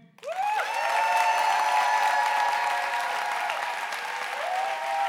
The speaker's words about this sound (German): Jetzt kann ich ganz kurz klatschen. Eins, zwei, drei.